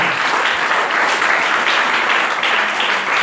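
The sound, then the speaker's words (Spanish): A crowd claps for the Lord in sustained, dense applause, a steady loud wash of many hands with no pauses, lasting the whole few seconds without any voices standing out. “Denle un aplauso al Señor, por favor, esta noche.”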